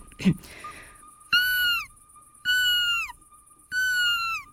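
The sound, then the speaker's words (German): Someone imitates a midwife toad's call with three clear, bell-like piping notes, each about half a second long and evenly spaced, after a brief knock at the start. A faint steady hum runs underneath. “Und ich habe es heute auch mal ausprobiert.”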